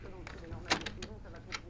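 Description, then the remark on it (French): A key turns in the lock of a dressing-room door, giving a sharp metallic clack followed by a few lighter clicks, with a soft voice murmuring underneath. “vous vouliez que la porte de la loge soit fermée à clé.”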